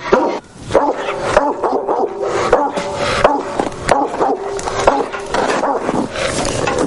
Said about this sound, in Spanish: Desde fuera de la recámara, el perro de los dueños de la peletería ladra incesantemente.